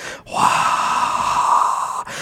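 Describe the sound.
A voice makes a long, steady breathy roar, fairly loud, imitating 10,000 people rushing into an arena shouting, with a brief intake of breath before it and a short pause near the end.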